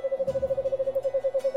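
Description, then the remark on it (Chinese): An owl gives a steady, mid-pitched trilling hoot, a rapid even pulse of about ten beats a second held on one note, heard alone with no talking. “眼睛变大的猫头鹰，就再也没法忍受白天的阳光了。”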